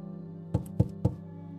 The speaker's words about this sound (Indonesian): Terketuk daun pintu minta dibuka.